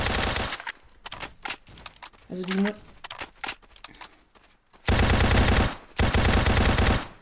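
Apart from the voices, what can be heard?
video game gunfire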